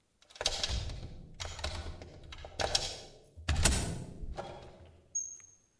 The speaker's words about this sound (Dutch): Terwijl hij daar vaag over nadacht, luisterde hij onbewust naar de geluiden die uit de diepte van het gebouw gedempt zijn kamer binnendrongen. Het openen en sluiten van een deur. Voetstappen op de trap.